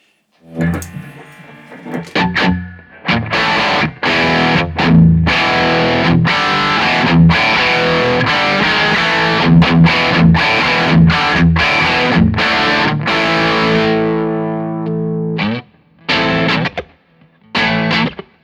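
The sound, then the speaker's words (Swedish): An electric guitar through a Rat distortion pedal, its filter being adjusted with more distortion and the treble turned down, plays a loud, gritty riff of chugging chords and sharp stabs with brief stops, ending in a few separate hits. No one speaks. “Det här vill man nästan lägga på lite mer dist och eh, vrida av lite topp.”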